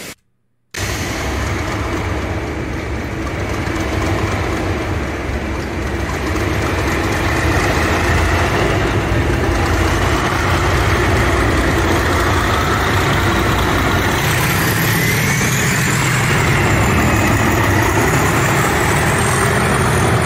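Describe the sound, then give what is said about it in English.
A heavy railhead treatment train rumbles past, its deep diesel engine drone steady and loud for about twenty seconds, with a faint rising whine near the end and no voices. “So that was the that was the Railhead Treatment going past.”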